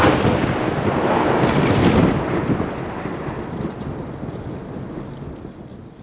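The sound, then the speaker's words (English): A heavy crack of thunder from a lightning strike breaks and rolls on in a deep, booming rumble that slowly fades over several seconds, with a steady hiss like rain beneath it. “Shortly after their arrival, Elizabeth's father, Garrett's grandfather, was struck by lightning and killed.”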